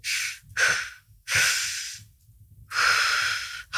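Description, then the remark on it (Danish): A person demonstrates labor breathing used to get through contractions: long, loud, breathy exhalations in a slow rhythm, three main breaths with short gaps between them, with no talking. “Og på det her tidspunkt, der, øh, der niver vejerne så meget, så jeg bruger helt klart min vejrtrækning min, øh, min labroværktrækning til at komme igennem.”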